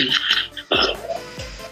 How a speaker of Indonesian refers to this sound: buset tuh batuk corona pergi tuh yo